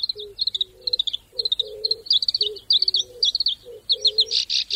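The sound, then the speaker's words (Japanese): A black-browed reed warbler, a bird about 13 cm long, slightly smaller than a sparrow, with an olive-tinged brown head and back and a black line above a white eyebrow mark, sings a fast, unbroken stream of crisp, high chattering notes over lower buzzy phrases, each note distinct, for several seconds with no talking. “コヨシキリです体長およそ13センチスズメより少し小さい鳥です頭と背中はオリーブがかった茶褐色眉のような白い模様の上に黒い線があります”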